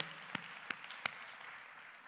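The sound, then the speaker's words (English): A church audience claps their hands in praise of God on Palm Sunday morning, a dense, steady patter of applause, with three sharper, louder claps standing out early on. No voices are heard. “Can somebody give God a hand clap of praise this morning?”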